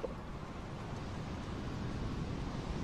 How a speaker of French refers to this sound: les vagues frappent lourdement le bateau